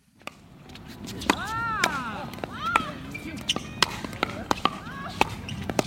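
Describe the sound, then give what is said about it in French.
A rapid, uneven series of sharp hollow pops as a perforated plastic pickleball is struck back and forth by wooden paddles on a court about half the size of a tennis court, with people's voices and calls in the background. “c'est un mélange de badminton et de ping-pong qu'on joue avec des raquettes en bois sur l'équivalent d'un demi-terrain de tennis, sauf que la balle perforée est en plastique et comme les échanges vont très vite, ça fait pas mal de bruit.”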